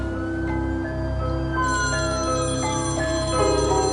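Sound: telephone ringing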